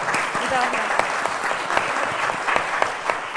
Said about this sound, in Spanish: Un aplauso.